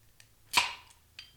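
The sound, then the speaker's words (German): A single sharp, fairly loud pop of a bottle that was shaken beforehand being opened, with a short hissy tail, framed by a few faint clicks before and after. “Das schüttelst du vor, ne? damit das ein bisschen besser knallt.”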